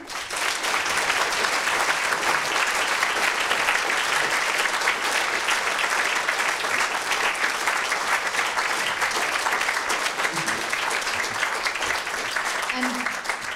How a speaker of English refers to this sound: Thank you. Good. Well, a final round of applause, please, for our speaker.